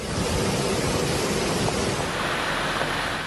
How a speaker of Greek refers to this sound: Έχει μετατρέψει του δρόμους σε ποτάμια λάσπης που παρασύρουν οχήματα και κάδους απορριμμάτων.